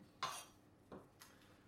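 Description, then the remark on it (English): A knife chops broccoli and green beans on a cutting board, taking the tops and tails off the beans: three sharp, uneven thuds with quiet pauses between them and no voices. “You, you chopping your midget trees, mate?”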